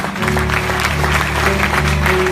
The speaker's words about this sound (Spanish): Vamos, déle, el aplauso más fuerte.